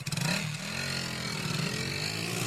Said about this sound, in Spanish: Mientras estamos recorriendo las calles, haciendo la entrevista, dos motos se nos acercan y nos miran de reojo.